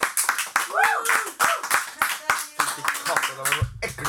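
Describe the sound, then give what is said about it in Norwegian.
Sharp hand claps in a steady, fairly quick rhythm from a small group, with excited voices calling out and talking over the clapping throughout. “Og det syns jeg fortjener en applaus.”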